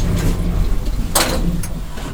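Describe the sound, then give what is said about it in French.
A steady low mechanical hum of an elevator runs throughout, broken midway by a brief hissing rush and a short clack as the doors slide, fairly loud, with no talking. “Elle fonctionne bien l'ascenseur ah Oui, oui, oui.”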